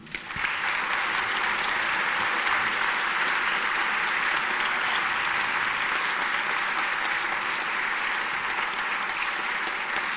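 Sustained, dense applause from an audience, loud and steady for about ten seconds after a brief onset, with no talking over it.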